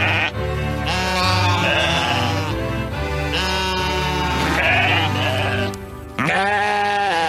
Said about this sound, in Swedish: kan vi få höra bräkande får och Rule Britannia? Tack!